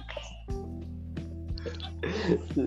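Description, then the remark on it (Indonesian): A tokay gecko in a garden calls with two sharp, clipped croaks about a second apart over a low steady hum, followed by a burst of rougher noise. “itu tokek siapa lagi aduh nggak tahu di kok nggak tahu di kebun gua”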